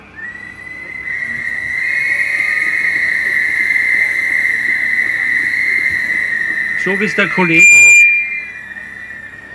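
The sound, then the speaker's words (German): A shrill, sustained trill whistle blows steadily for several seconds at a high pitch, loud over crowd noise at a protest march during a strike, before a man's voice briefly speaks over it near the end. “der hier vorne mit der Trillerpfeife steht”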